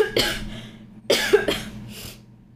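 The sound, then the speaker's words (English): A person coughs several times in abrupt bursts, followed by a rougher throat-clearing sound, with no talking. “I have to cough.”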